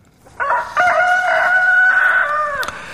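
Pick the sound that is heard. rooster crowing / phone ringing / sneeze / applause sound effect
rooster crowing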